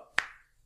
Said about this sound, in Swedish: alltså jag håller på att knäcka mycket med fingrarna. Mm. Uh, alltså det låter så här,